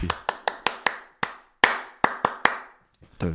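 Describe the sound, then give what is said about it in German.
About ten sharp hand claps ring out in an uneven rhythm, some quick pairs and some pauses, each loud and crisp with a short decay, followed by a faint murmur of voice at the end. “Ja, ich bin alter Klatscher.”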